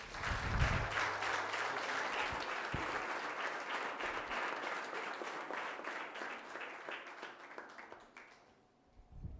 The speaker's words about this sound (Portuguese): Glória a Deus. Aplauda Jesus.